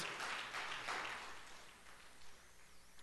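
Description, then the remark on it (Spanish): An audience in a church service claps together for God in a dense, crackling burst of applause that peaks early, then thins and fades over a few seconds. No one speaks over it. “Dad un aplauso, por favor, a nuestro Dios.”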